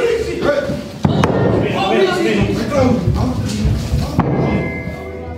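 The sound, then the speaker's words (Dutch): A door being forced open in a police raid: a few sharp, heavy thuds and slams cut through loud, chaotic shouting of "Politie!" from several voices, with banging and shuffling throughout. “Kijk, zo klinkt een inval ongeveer.”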